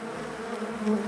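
A steady buzzing of bees, a continuous droning hum that holds at an even level and swells slightly near the end, with no voices.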